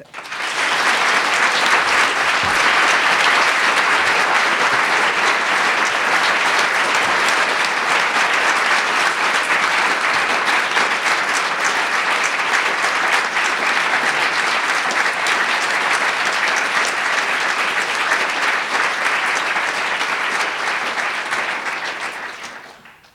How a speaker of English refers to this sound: I hope you drink in that applause, the length of it. It's clearly sincere.